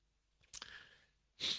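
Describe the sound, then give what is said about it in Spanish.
A short, stifled sneeze-like burst of breath, brought on by cat hair, followed a moment later by a sharp, hissing sniff or exhale; no talking. “el gato me dejó en ganas de estornudar de su pelo”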